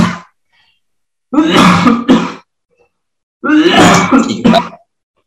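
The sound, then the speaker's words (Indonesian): Two loud bursts of harsh coughing and throat clearing, each a rough rasping hack with a short follow-up, separated by about a second of silence. “Aduh ngomongin PNS, ini batuk gua.”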